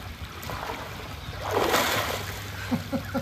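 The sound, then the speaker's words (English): A person is baptized by immersion, dunked under water with a broad splash and surge of water, then dripping and a few faint voice fragments as the water settles. “I now baptize you in the name of the Father, the Son, and the Holy Spirit. You're buried with Christ in baptism.”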